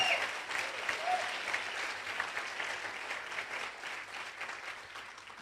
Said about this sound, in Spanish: Aplauda al Señor de la Gloria.